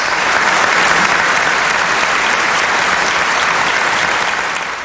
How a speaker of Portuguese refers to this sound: agradecimento vem em forma de aplausos demorados e lágrimas.